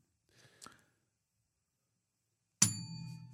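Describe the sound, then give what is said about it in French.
A single bright bell ding, marking the break between quiz questions, strikes sharply after a near-silent pause, its clear metallic tone ringing on and sustaining to the end. A few faint, short rustling sounds come earlier. “La cloche entre les deux.”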